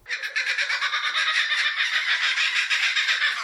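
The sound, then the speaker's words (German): A bird's loud, rapid cackling call runs continuously, a fast stream of harsh, repeated notes that sounds like mocking laughter, with no talking over it. “Und es ist tatsächlich ein Vogel, der wirklich klingt, als lacht er einen so richtig mhm. hämisch aus.”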